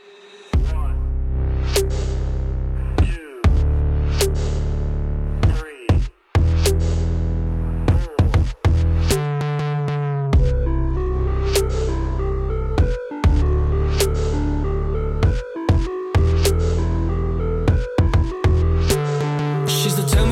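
A full-band music track plays loud and steady, with a driving beat of sharp regular drum hits over sustained bass and chords, no voices heard.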